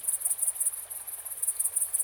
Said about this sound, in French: Mais pour aujourd'hui, restons en France, le 1er septembre, au bord de la Drôme, avec la grande sauterelle verte, pleine lune et 17 degrés de température.